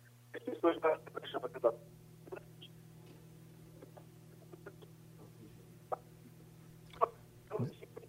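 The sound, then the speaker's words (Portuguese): A glitchy phone line with a steady low buzz underneath, broken by a cluster of choppy, garbled chirps early on, then scattered clicks and brief distorted bursts as the connection cuts in and out. “Deu uma briscadinha aí, vamos ver se a gente. O telefone está com, tá com marcação comigo, como se diz, né?”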